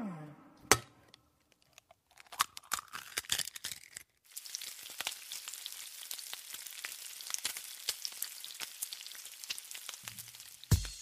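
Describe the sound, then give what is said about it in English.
A sharp crack and a brief wet opening sound as an egg is cracked open, followed after a moment by a steady sizzle of the egg frying in a hot pan, crackling with small pops. “Start with a crack, and then an open, and then a sizzle.”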